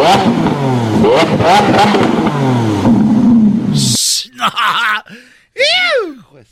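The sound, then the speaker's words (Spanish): A man imitates a Lamborghini engine revving with his voice, a loud rising-and-falling vroom that climbs in pitch, then several short sputtering bursts, with laughter mixed in. “Oigan cómo suena un Lamborghini. A ver. Ahí les, va más o menos”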